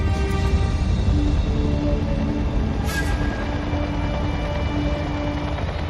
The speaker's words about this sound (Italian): Così il rumore che sentite è solo quello di apparecchi che sorvolano in ricognizione.